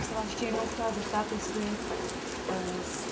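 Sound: steady rain falling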